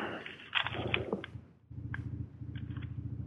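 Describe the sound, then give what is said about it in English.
A steady, rhythmic low thumping of helicopter rotors passing overhead runs throughout, with a few brief higher chirps or clatters on top. “We should just hire that helicopter that I hear in the background.”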